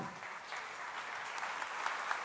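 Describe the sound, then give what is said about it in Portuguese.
An audience applauds God in gratitude during a prayer, a dense wash of many hands clapping at once, sustained and fairly even for a couple of seconds with no voices standing out. “recebe, ó Pai, o aplauso do teu povo, a gratidão do teu povo”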